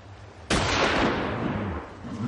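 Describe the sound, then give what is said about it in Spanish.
A single loud rifle shot, fired by a man of about 70 at another man's forehead, cracks out suddenly, then rolls away in a long, echoing decay that lingers for well over a second. No one speaks. “Dispara al hombre en la frente.”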